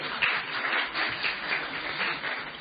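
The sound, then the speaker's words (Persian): A steady wash of crowd applause, dense overlapping hand claps blending into an even hiss that holds at a moderate level for a few seconds without pause. “تشویق کنید مرسی”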